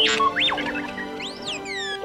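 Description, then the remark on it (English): The droid R2-D2 from Star Wars beeps and whistles in quick electronic chirps and warbling pitch glides that swoop up and down, bright, with no talking. “You also know what R2D2 sounds like.”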